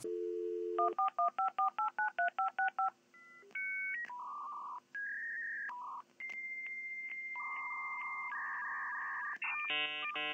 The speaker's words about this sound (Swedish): Vi får väl se om jag får tag i den här filen som du har spelat in nu då det, är, du verkar sitta på någon 56k modem, ni vet sånt där man ringer upp med.